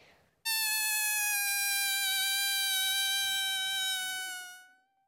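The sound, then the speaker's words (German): A loud, shrill squeal as a person stretches the opening of an inflated balloon and air escapes, holding a steady high pitch that wavers slightly before tapering off over about four seconds. “Ich blase einen Luftballon auf und dann ziehe ich die Öffnung ganz weise und dann macht das so ein schreckliches Geräusch.”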